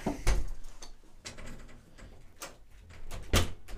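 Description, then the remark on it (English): A room door being opened to let a dog out: several sharp clicks and clunks from the latch and handle, spaced a second or so apart, with a thump at the start and near the end, no talking. “So I'm gonna let my dog out of this. Yeah, I know. Room. He's sitting at the door.”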